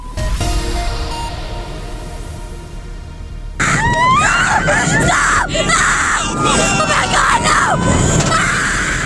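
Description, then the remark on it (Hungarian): Loud, sustained screams from a crowd of roller coaster riders burst in after a few seconds of rumbling mechanical noise, overlapping shrieks and yells rising and falling as the roller coaster rushes along. “Mint a hullámvasúton, a gazdaságban is normális az emelkedő és időnként zuhadó pálya, még ezt az utasok nehezen szokják is meg, mint halljuk.”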